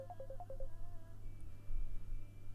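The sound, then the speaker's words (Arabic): A quick run of about six short telephone dialing beeps chirps in rapid succession as a second call is placed and the phone freezes, then gives way to a steady thin tone, all over a low electrical hum with no voices. “اتصال تاني التليفون هنج يا جماعه ايه ده يا جماعه من زمان ما حصلتش عندي المشكله دي تليفوني هنج يا جماعه”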